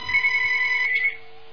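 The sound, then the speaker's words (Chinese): A telephone rings once with a steady, high-pitched electronic tone on a radio call-in show as the host takes the second call. It holds for about a second, then cuts off, leaving a faint hum. “好，那么我们接第二个电话。”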